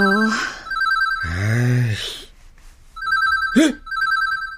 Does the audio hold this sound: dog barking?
no